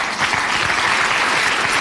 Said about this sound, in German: Das ist Applaus